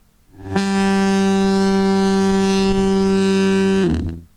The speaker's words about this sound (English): It's a very loud foghorn. It's a very loud foghorn.